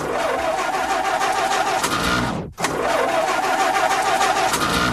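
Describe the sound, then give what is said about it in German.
A car engine cranks loudly and steadily without catching in the cold, broken by a brief cut-out halfway through before the grinding starter noise resumes. No voices. “Dieses Geräusch fürchtet jeder Autofahrer.”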